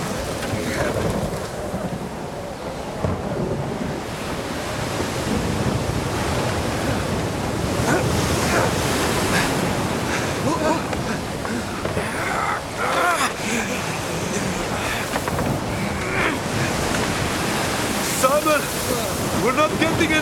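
Rough sea and gusting wind roar continuously, with waves crashing loudly and steadily throughout, a dense, turbulent storm wash with no clear pauses, in a storm scene at sea from the series The Chosen, Season 3.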